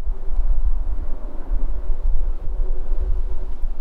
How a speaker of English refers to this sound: On this day, you hear the wind blowing and the traffic from Interstate 8 as cars and trucks cross the Arizona California border less than a mile away.